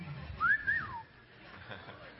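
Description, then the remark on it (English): A short two-note whistle rises and glides down, let out by an audience member at a church concert, over quiet murmuring and faint background voices. “You can whistle in the house of the Lord.”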